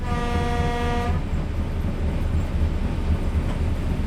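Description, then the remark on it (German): A historic railway train running from Schelklingen to Grafeneck rolls along with a steady rumble, opening with a single sustained horn blast that cuts off after about a second, then continuous wheel and engine noise. “Ich fahre mit der historischen Eisenbahn von Schelklingen dorthin.”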